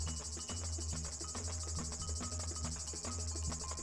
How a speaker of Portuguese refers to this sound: Pois é, no mundo dos insetos, nós temos o canto das cigarras, que é um dos grandes sons da natureza.